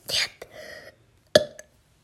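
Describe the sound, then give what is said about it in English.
Abrupt hiccups: a breathy burst, a short voiced squeak, then one sharp, loud hiccup followed by a faint catch of breath, with no talking. “These hiccups are really bad.”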